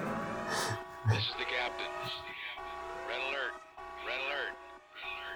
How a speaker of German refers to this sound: Achtung, Sturmwarnung. Genau, das war unsere Sturmwarnung, die ihr hier gehört habt. Das bedeutet, das ist ein Boot jetzt äh, das ruhige Gewässer verlässt.